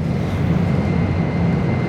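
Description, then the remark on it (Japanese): A steady, loud rumble fills the interior of a moving Shinkansen bullet train heading to Tokyo: deep droning roar with a faint high whine, constant throughout, no voices. “えー、新幹線の車内から失礼をいたしておりますマイルチャンピオンシップとは逆の方向に東京に向かう車内でございますけれども”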